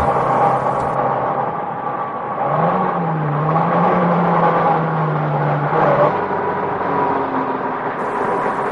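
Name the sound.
car driving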